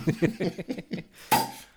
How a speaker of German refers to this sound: So, ich mache mir jetzt erstmal ein Bier auf.